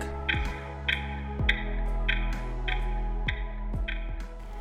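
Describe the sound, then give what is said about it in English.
A clock ticks steadily, roughly twice a second, each tick crisp, layered over a low, sustained musical drone with no voices. “The climate time bomb is ticking.”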